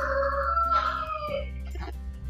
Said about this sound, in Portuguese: três galos galos domésticos que estão no momento de cantoria